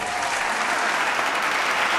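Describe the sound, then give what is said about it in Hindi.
Loud, sustained applause from an audience welcoming two singers about to perform a mixed raga, a dense wash of many hands clapping steadily for about two seconds with no pauses and no voices standing out. “तो सबकी पसंद को ध्यान में रखते हुए एक मिश्रित राग प्रस्तुत कर रहे हैं जिसमें ये राग के अंदर ही एक गीत गाएंगे आइए जोरदार तालियों से हम इन दोनों का अभिनंदन करते हैं”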